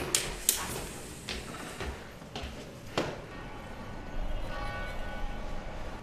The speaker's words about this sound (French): On entend d'ailleurs les cloches au loin euh, des églises de la vieille ville.